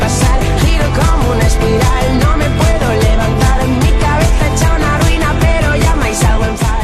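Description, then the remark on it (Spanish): An upbeat, catchy debut pop single by a newly starting female artist, with her singing over a steady, driving beat and full instrumental backing, loud throughout. “Hoy le damos el turno a una mujer que recién empieza en este mundo y se estrena con este single que suena así.”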